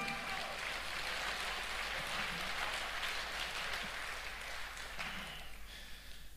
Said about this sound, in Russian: Дайте Господу огромные аплодисменты.